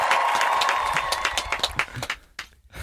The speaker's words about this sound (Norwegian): Videre med applaus, da!